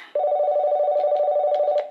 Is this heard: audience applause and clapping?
no